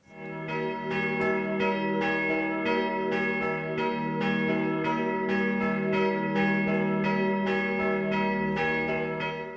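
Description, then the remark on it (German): Church bells in a church tower in Osterwarngau, struck by hand by people standing in the tower in a steady, clear rhythm set by the large bell. Bright repeated strikes ring over a sustained hum of overtones, loud, with no voices. “Also man hört schon, das ist ein ganz klarer Rhythmus, eben dadurch, weil da wirklich ein im Kirchturm stehen und die Glocken schlagen.”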